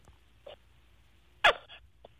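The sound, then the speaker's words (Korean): A person imitates a small baby's fart using the palm of the hand: one short, sputtery burst with a brief trailing buzz, bracketed by two faint little puffs, over a quiet phone line. “애기 방귀. 예, 애기 방귀.”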